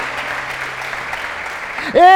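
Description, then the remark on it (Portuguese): An audience applauds in a steady, dense wash of clapping for about two seconds, then a loud voice breaks in over the tail of the applause. “Dá um aplauso a ele, pelo amor de Deus.”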